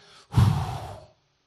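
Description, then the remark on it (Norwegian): A single long, breathy exhale, like a deep sigh, imitating God breathing, lasting under a second and fading out into silence. “Mosebok kapittel 2 og vers 7 så leser vi at Gud puster”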